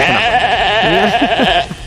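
A sheep bleats loudly, a single drawn-out wavering baa lasting nearly two seconds before it cuts off.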